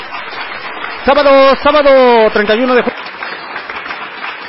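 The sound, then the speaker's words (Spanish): Steady applause crackles throughout at moderate volume, a dense clatter of clapping that continues while a man speaks briefly over it midway. “Aplausos, maldita sea, aplausos.”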